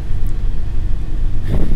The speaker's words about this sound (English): Let me uh, get ready to go onto the bus. hey, I'm on the bus. Yeah, so the bus pulls up